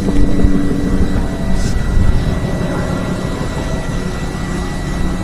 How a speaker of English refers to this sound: That's a low helicopter. You guys hear that?